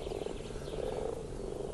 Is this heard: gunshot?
no